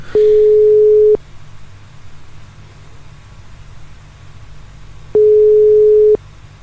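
A phone ringback tone from an outgoing call placed in the evening: two steady one-second beeps at a single pitch, separated by a long pause of about four seconds, clear and fairly loud over faint line hiss.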